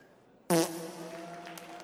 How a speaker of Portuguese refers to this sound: Eu acho que, assim, antes de mais nada, você peidou de uma forma muito generosa. Que precisão, que beleza! Peidou com elegância, com potência e me deixou assim atônito e agradecido.